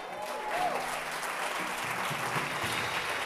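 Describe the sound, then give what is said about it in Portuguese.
A crowd claps steadily for Jesus, a dense wash of hands holding at an even loudness for several seconds, with a faint hum of voices beneath the applause. “Pelo amor de Deus, dá um aplauso para Jesus, irmão.”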